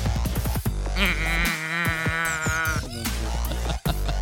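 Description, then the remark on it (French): A moo box toy being tilted lets out a loud, drawn-out, wavering groan that sounds much like a bleating goat, with no one talking. “C'est une boîte à meux.”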